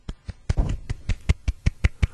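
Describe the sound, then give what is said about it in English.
A restrained golf clap: a single person's soft, crisp claps, about a dozen in a steady, evenly spaced rhythm, with no voices. “the little golf clap and, and things like that.”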